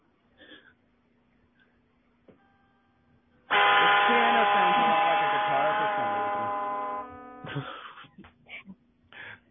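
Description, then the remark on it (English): A piano keyboard plays one loud, buzzy note, a G, that holds at a steady pitch for about four seconds, then cuts off, with faint scattered sounds before and after. “uh, why don't you play something on the piano, and we hear him uh, play”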